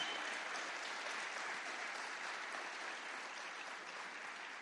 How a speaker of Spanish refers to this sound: Hay una gran comitiva que está aquí con nosotros también. De la iglesia El Faro. Pido un aplauso de honra para ellos.